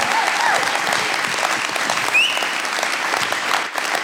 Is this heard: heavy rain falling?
no